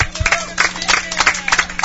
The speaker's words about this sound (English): Well, gentlemen, you deserve a big round of applause. How about it, Team MIH? Come on.